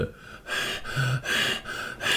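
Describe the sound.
A voice imitates heavy panting: five or so loud, rapid breathy gasps in a steady in-and-out rhythm, with no talking, like a performer badly out of breath on stage after finishing a show.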